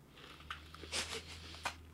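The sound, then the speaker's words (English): Crisp crunching of freeze-dried ice cream being bitten into: a few sharp crackly bursts, one longer grinding crunch in the middle, over a faint steady low hum with no talking. “Oh, it has a crunch to it. I may actually break a tooth.”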